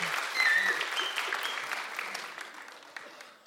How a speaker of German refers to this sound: Guten Morgen, ja, danke für den Applaus, da fühle ich mich richtig begrüßt von euch. Na, war, war nicht, äh, nicht für mich.